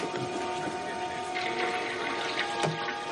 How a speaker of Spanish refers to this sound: Él camina hacia el baño al oír a la chica orinar.